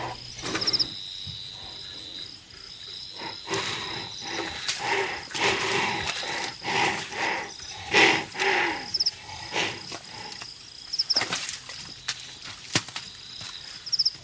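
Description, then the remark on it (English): A northern white rhinoceros vocalizes in a series of harsh, breathy bursts and rumbling snorts, loud, while insects keep up a steady high chirping in the background. “So, three species that I've recorded are now in museums where you push a button the northern white rhino,”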